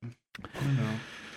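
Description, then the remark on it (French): Someone drinks: a short sip, a brief pause, then a swallow followed by a drawn-out, voiced sigh of relief. “Pardon pour ce bruit de boisson.”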